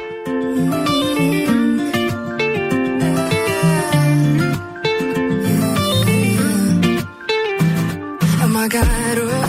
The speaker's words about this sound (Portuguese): Vamos de música e daí depois a gente